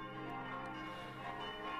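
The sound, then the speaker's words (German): The noon peal of five bronze church bells, tuned C, F, G, A and C, ringing steadily, their overlapping metallic tones humming and blending into a continuous, fairly loud peal with no voices present. “Zwölfuhrläuten”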